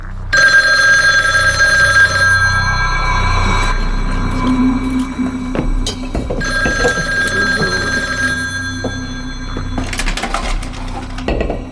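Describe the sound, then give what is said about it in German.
A telephone bell rings loudly in two long bursts separated by a short pause, with a faint rattle between rings and no voices. “Da klingelte das Telefon.”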